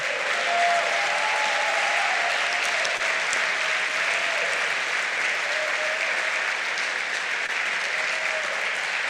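A church audience claps loudly and steadily for several seconds, applauding the Lord during a service, a dense wash of applause with faint voices and a few cheers rising through it.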